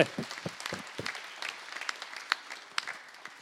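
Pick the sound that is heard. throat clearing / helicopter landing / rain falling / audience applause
audience applause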